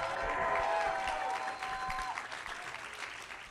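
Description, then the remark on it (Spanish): A crowd claps loudly and continuously, giving applause and a shout of victory to Jesus, with whoops and shouted cheers rising over the applause before it gradually thins out. “Vamos, darle un aplauso fuerte a Jesús. Dale un grito de victoria.”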